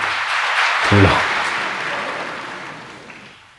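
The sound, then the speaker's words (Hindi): A crowd breaks into dense, steady applause, a brief voiced shout rising over the clapping early on before the applause gradually thins and fades out. “तालियां बजा लेंगे बिल्कुल”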